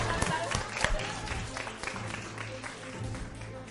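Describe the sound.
A group of children clap together in a steady, dense patter of applause lasting several seconds, fairly loud and even throughout, with a few voices faintly mixed in.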